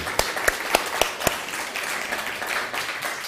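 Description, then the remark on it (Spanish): An audience applauds to welcome everyone, opening with five sharp, evenly spaced claps before dissolving into a dense, steady wash of clapping from many hands at a moderate level. “Pues bienvenidos todos, un fuerte aplauso.”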